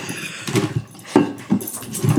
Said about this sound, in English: And here's our third co host, Sasha the puppy, oh. who's just ruining.